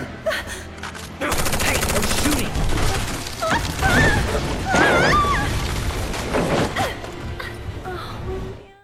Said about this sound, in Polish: Jeden z tych rekrutów o tym najwyraźniej zapomniał i kilka kul świsnęło koło naszych głów.